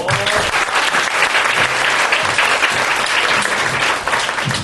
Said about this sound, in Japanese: 盛大なる拍手をお願いくださいさすがマリスコよ